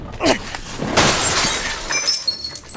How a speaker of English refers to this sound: No! Look what you did! You shattered the mirror!